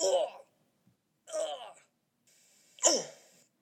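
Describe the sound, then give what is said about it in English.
A voice makes three short, strained vocal bursts, separated by brief pauses, fairly loud, imitating grunts with breathy, groaning edges, as an example of an onomatopoeia word that comes from a body movement. “Here's some other onomatopoeia words that come from body movements cough, grunt.”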